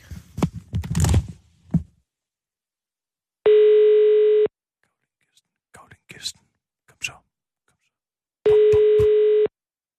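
Two steady, buzzy telephone tones about a second long sound several seconds apart, like a line ringing after a number is dialed, with soft whispering and rustling between them.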